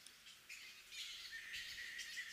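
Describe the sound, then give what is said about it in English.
Shrill, raspy screeching from flying fox fruit bats in dark tree branches at night, a chorus of overlapping squawks with repeated harsh bursts, fairly faint, with no talking. “Have you ever heard a screeching in the dark tree branches at night? Those are flying foxes, also known as fruit bats, and they can give you a bit of a fright”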